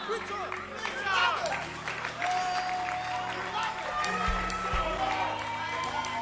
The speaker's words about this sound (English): You to stand up, stand up and clap your hands. Stand up and preach. Clap your hands.